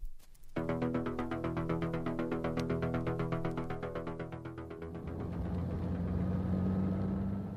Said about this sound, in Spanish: Y ahora un automóvil. En él viajaban dos agentes, el inspector Adams y Johnny Wilbur. A las 5 menos 20, el vehículo tomaba la carretera de la costa.